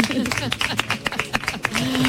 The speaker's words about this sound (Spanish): Tiene mucho público, tiene mucho público. ¿Cómo están pasando la tarde? Bien. Bien. Vamos a dar un aplauso